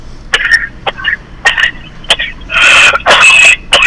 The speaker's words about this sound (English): I'm sorry, man. I got a little bit of a cough. Whoop. Probably a whooping cough.